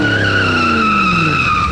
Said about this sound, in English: The car is coming at full speed, and you better move away or I will run you over.